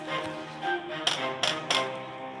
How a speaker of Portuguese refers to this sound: O lobo teimoso bateu na porta pela terceira vez.